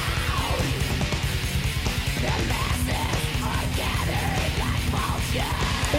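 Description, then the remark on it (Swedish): Raspy, harsh singing cuts through a loud, dense metal track with a Swedish-style guitar sound, the strained vocal phrases rising and falling over constant pounding drums and distorted guitars, with no spoken voices. “Hör du det här raspet ja, som kommer Ja, vad fan påminner han om?”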